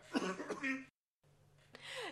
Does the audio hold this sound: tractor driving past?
no